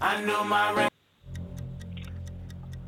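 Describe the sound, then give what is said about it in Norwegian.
A short burst of loud music cuts off, then a steady countdown ticking starts as a timed round begins, quick even ticks over a low sustained synth drone, clear. “Nå hører du det, det tikker og det takker.”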